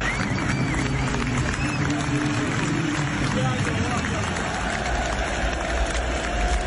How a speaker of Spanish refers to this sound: Luis Díaz y la ovación múltiple de pie de Anfield, los aficionados del Liverpool.